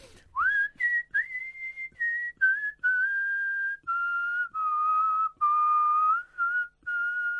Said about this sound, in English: More recorder work there.